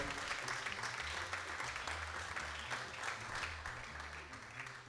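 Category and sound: crowd, audience applause in auditorium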